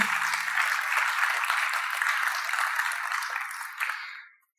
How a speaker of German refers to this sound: Ja, gebe ich nur einen Applaus.